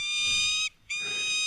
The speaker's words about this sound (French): Ça, c'est le faucon qui crie quand on entend des anglicismes.